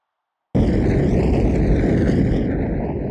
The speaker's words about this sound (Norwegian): I samme sekundene så visste jeg at det var et snøskred. At vi sklei ned gjennom.